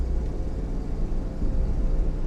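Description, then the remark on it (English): A steady, loud low rumble of a speeding car heard from the driver's seat, with constant road and engine noise filling the interior and no breaks or voices. “now my hands are rigid on my steering wheel, my blood feeling a whole lot like cement in my heart”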